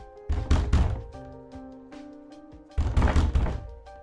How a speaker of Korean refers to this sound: 그렇게 한 시간쯤이 지났을까. 갑자기 문을 두드리는 소리가 났다.